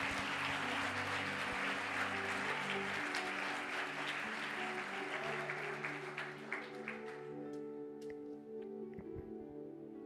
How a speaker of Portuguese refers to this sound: Glória a Deus, você pode dar uma salva de palmas por isso.